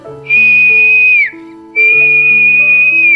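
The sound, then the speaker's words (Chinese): Two long, steady, high-pitched whistle blasts, the first ending with a slight downward slide, as a police officer waves his hand and blows his whistle to stop traffic so a duck and her ducklings can cross the road, sounding loudly over soft sustained background music with no talking. “他一边挥着手，一边吹响了哨子。”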